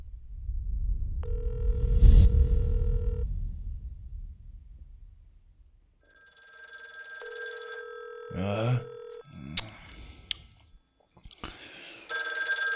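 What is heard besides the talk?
telephone ringing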